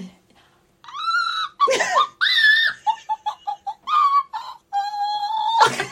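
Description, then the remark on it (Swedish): A very high-pitched, opera-style vocal sound, tried as a glissando that starts lower and glides upward. Long sustained falsetto notes are broken by a quick staccato run and breathy laughing bursts, loud and without speech. “Det, det är typ jättepitch, jättepitch opera.”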